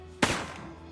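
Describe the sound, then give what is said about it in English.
A single sharp gunshot sound effect cracks out suddenly, loud, followed by a brief decaying echo tail that fades over the next half second. “Lucky for you, you get 10 hit points back because here comes another bang. Sorry, I mean another gunshot”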